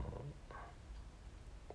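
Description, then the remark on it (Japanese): A faint, low stomach growl gurgles briefly, a soft rumbling with a couple of bubbly squeaks, and no talking over it. “そのあお腹が鳴ったうん”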